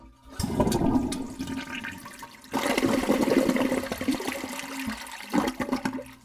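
A toilet flushes in a loud, rushing surge of water that swells, briefly dips, then roars again before gurgling and trickling away near the end. No one speaks.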